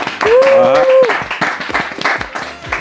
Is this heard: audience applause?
yes